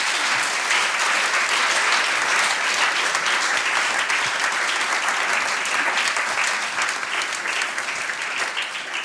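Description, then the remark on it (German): Sustained audience applause, a dense steady wash of many hands clapping at once, loud and continuous throughout before easing slightly at the very end. “Der erste tri-religiöse Podcast mit drei Frauen in der deutschen Podcast-Landschaft ist meiner Meinung nach ein Applaus wert.”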